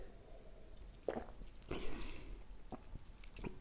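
A quiet sip of a ten percent cherry beer from a glass: a soft clink, then a short slurping draw, followed by faint wet swallowing clicks, with no talking.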